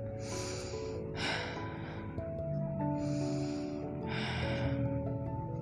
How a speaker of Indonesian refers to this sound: Kamu dengerin aku nafas aja ya.